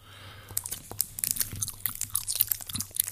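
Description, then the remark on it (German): Wet, sticky ASMR chewing of Haribo gummy bears from an advent calendar, with rapid irregular smacking and squelching clicks, continuous for a few seconds over a low steady hum, with no talking. “Hm, ja, Gummibärchen, oh. Triggerwarnung, Schmatzgeräusche.”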